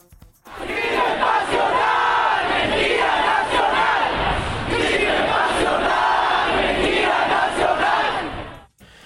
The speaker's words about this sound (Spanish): Ahí, en tierras hidrocálidas, los gritos de justicia también criticaron la investigación de las autoridades locales.